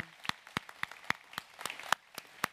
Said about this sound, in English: So, can we welcome our first time guests with a hand clap? Just, hey, welcome.